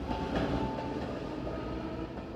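An S-Bahn commuter train rumbles steadily, a dense low roar with a faint whining tone above it and soft rail clatter, holding an even loudness throughout with no voices.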